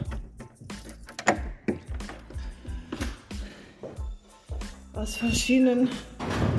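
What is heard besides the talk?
door being shut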